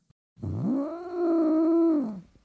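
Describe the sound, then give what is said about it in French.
A person imitates a cat's growl with one drawn-out, throaty call that rises in pitch, holds steady for over a second, then sinks away. It is fairly loud, with no talking. “Ah, tu fais super bien le chat.”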